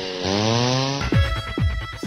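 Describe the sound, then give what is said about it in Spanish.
A chainsaw drones steadily, then revs hard in three quick, loud bursts, its engine pitch surging and dropping with each pull of the throttle. “tractores, cortacéspedes, motosierras, desbrozadoras, la maquinaria agrícola para tu finca, terreno o jardín.”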